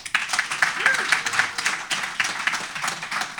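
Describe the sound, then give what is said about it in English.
A crowd bursts into steady applause, a dense wash of many hands clapping at once, sustained and fairly loud throughout without any voices rising above it. “How many of you got to uh, have a, a, dinner or a lunch with uh, Ross and learn something by show of applause?”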